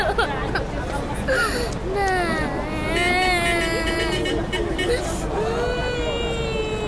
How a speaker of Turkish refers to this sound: Çocuklar ağlıyor, anneleri ağlıyor. Üst üste kazaklarını, onun üstüne de kabanlarını giymişler. Otobüsleri bekliyorlar.